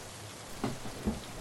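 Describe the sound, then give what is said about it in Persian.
Steady rain hisses evenly throughout, with a couple of louder drops or splashes standing out briefly against the constant wash. No voices. “آخه یه دقیقه بشینم زیر این بارون”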